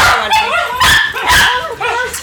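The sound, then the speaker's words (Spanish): A dog barks several times in quick, uneven bursts, fairly loud, with high yipping and whiny tones between the sharper barks. “Los perritos pueden hablar lo que quieran. Sí, los perros hablan lo que quieran.”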